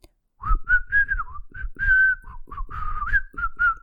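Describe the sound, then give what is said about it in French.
A cheerful whistled tune, whistled by the wolf in a narrated Three Little Pigs tale instead of blowing at the pigs' house: a quick series of bright, clear notes that rise and fall in a bouncy rhythm, with short pauses between phrases and nothing else heard. “Et alors qu'il s'apprêtait à souffler sur leur maison, il se dit que c'était bien plus chouette de siffler.”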